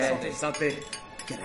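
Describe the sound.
Glasses clink together a few times in a toast at a Chinese restaurant, bright, mixed with the clatter of tableware while several standing people talk over it.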